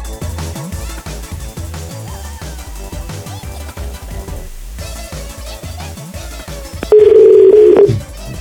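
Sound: telephone ringing tone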